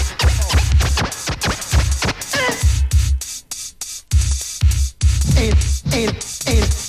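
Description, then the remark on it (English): Loud DJ turntable scratching in quick, rhythmic back-and-forth bursts with whooshing pitch sweeps over a thumping beat, briefly thinning out midway before the rapid cuts resume. “the man up behind me, operates the turntable. when I'm rocking my rhymes.”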